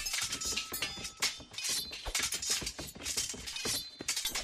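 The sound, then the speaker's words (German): Swords clash and clink in rapid, continuous succession, bright metallic rings overlapping in a loud, busy melee with no pauses and no voices. “Du hast es gerade gesagt, episch, da denkt man ja, Kampfszenen, da kannst du Schwerter klirren irgendwie einbauen.”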